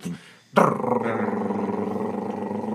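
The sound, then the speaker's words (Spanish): A voice imitates a drum roll with a loud, sustained rolled 'rrr' trill that starts abruptly after a brief sound and holds steady for about two seconds. “Quisiera dar la bienvenida a un redoble de tambores”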